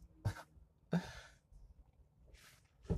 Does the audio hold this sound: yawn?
yes